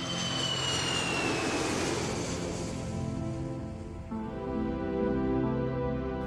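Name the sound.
airplane engine in flight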